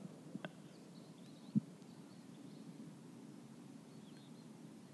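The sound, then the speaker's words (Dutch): A bird calls faintly from far off, a few brief high chirps scattered over a steady low outdoor rumble, with a couple of soft knocks and no talking. “Hier zit er weer een te roepen, hè?”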